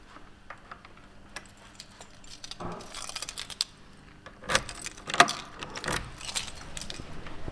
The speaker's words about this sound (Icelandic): Einmitt, mér sínist fólk verið búið að raða sér á hörðina, hefur ekki bara, þarf ekki bara að opna búðina? Þarf ekki bara að fara að kling, klingja liklónum og opna?